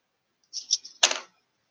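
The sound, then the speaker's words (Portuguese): A die rattles briefly in a hand or cup, then clatters sharply onto a hard surface with a quick skittering roll. Fairly quiet, with no talking. “Eu vou jogar aqui um, um dado pra ver se alguém escuta.”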